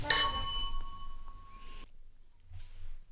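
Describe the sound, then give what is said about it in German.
Glasses of Prosecco clink together once in a toast, a bright chime whose clear ringing tone lingers and slowly fades over about two seconds, followed by near silence with a faint soft rustle. “Prost.”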